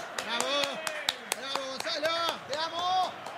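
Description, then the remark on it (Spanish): A steady run of sharp hand claps, about a dozen crisp, evenly paced slaps, applauding a fine chipped shot ('picada'), continues while a man's voice talks over them in a rising, animated tone. “Puedo aplaudirlo, qué fino.”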